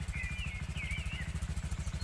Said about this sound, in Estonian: kodus on mul teile väike üllatus, karjus Brann üle mootorimüra, mis ei olnud tegelikult mootorimüra, vaid digitaalselt genereeritud Harley Davidsoni või Triumfi kärinat meenutav helide tulv.